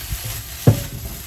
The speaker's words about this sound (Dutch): Ik, ga dit even, ik laat dit even bakken en dan, uh, dan is het goed